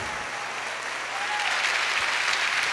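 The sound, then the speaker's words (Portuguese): An audience claps steadily, a dense, crackling wash of many hands that grows slightly louder partway through and keeps going without pause. “pode aplaudir, é muito bom.”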